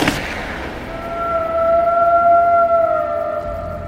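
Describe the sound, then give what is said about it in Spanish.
A single sharp gunshot cracks out as a man shoots a large dog, the bullet entering its skull between the eyes; after a brief pause the dog's long, wavering howl rises and holds steady for several seconds, loud, with no talking. “La bala entró justo en el cráneo, por entre los dos ojos. Se escuchó un aullido de la bestia.”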